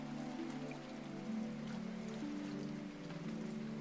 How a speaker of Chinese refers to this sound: 也能听到远处的河水流淌时，轻轻拍打在岩石上的声音